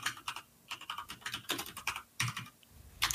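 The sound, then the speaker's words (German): Rapid, clacky keystrokes on a mechanical keyboard, fairly loud, coming in quick bursts with brief pauses and no talking. “anstatt mechanische Tastatur, sorry, ist super laut.”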